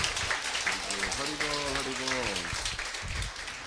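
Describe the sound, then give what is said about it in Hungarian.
A wedding crowd applauds the grooms steadily for several seconds, a dense crackling patter of many hands, while a voice calls out briefly over the clapping midway through. “Ladies and gentlemen, please give a big round of applause for the groom standing before you this afternoon.”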